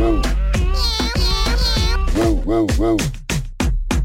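A cat meows over and over in quick succession, loud, the calls rising and falling in pitch with a few sharper, higher cries mixed in.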